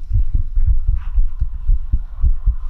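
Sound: human heartbeat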